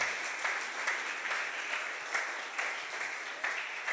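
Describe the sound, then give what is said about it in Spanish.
An audience claps steadily together in praise to God at a preacher's call, a dense, sustained patter of many hands, with faint voices mixed in underneath. “¿Cuántos lo creen y pueden aplaudir a Dios por ello?”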